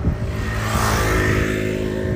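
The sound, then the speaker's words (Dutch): A scooter engine drones loudly past, its buzzing motor note rising briefly in pitch partway through, steady throughout with no talking. “Sorry hoor, scootertje.”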